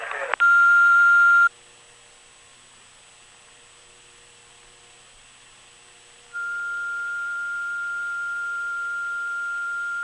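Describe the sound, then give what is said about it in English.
A loud, steady electronic beep of about a second, an answering machine's record tone on a Quick Parts and Accessories parts-order line, followed by a few seconds of faint hiss, then a softer sustained tone that runs to the end. “At the tone, you may then continue with your parts order.”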